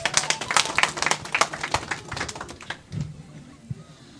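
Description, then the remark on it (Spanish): An audience at a community event in Pampaconga, Limatambo, claps for the community secretary, a dense patter of many hands that holds steady for a few seconds, then thins and dies away, leaving scattered claps and faint low murmuring. “Recibamos con fuertes palmas.”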